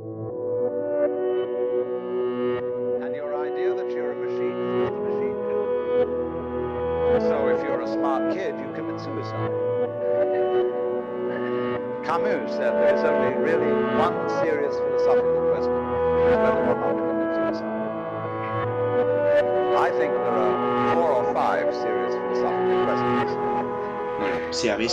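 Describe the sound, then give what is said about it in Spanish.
Lo-fi music with a vinyl record player filter on the singing voice, a steady, full mix of sustained tones and crisp percussive hits playing continuously throughout. “en la voz se escucha un filtro de lo-fi eh, como si fuera un, un tocadiscos eh, de vinilo, en plan ese sonido también suena muchas veces de fondo.”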